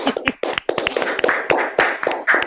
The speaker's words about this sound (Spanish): Fuerte el aplauso para esta primera respuesta.